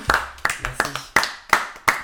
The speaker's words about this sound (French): Et je tiens à dire que c'est ta première chronique euh, dans l'émission quand même, ça s'applaudit encore ah une deuxième fois.